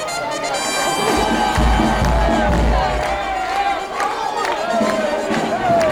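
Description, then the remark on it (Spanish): A pasodoble plays loudly on the streets of Cartagena with sustained brass-like tones, surrounded by a noisy outdoor crowd with chatter, shouts and occasional low thumps throughout. “esto que suena con el sonido ambiente de las calles de Cartagena es el paso doble del gallo”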